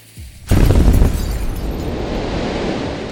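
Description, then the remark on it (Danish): A sudden, powerful explosion as a house, set off by a spark, blows apart, bursting in with a loud blast and settling into a sustained, heavy rumbling roar of flying debris. No voices. “Hele huset eksploderer med alle matroser og tjenestefolk indeni.”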